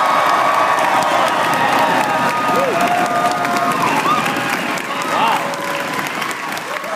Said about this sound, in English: All right. Thank you so much for that applause.